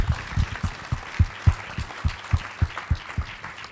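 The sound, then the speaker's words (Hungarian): A small audience claps steadily for a few seconds for a guest speaker, the individual hand claps distinct in a fairly regular rhythm, with no one talking over it. “Lehet kezdeményezni tapsot nyugodtan.”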